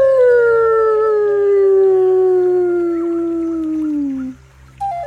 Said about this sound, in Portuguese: Ela ergueu sua voz para saudar seus irmãos e irmãs, respondendo com um uivo igual ao deles.